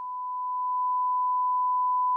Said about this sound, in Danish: Hvad er det for noget? Hvad for noget? Hvad er det for en fucking hyletone? En hyletone?